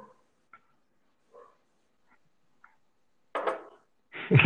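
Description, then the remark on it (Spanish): A big dog lets out a few faint, soft whimpers, then two loud barks near the end, the last one the strongest. “No contesta la pinche perra enorme.”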